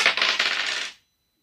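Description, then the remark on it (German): A short, bright clatter of two six-sided dice rolled in a tabletop role-playing game, tumbling and rattling against a hard surface for about a second, then settling into silence; they total eleven. Fairly loud, with no voices over it. “Sehr gut, dann äh, werden die Würfel jetzt fallen.”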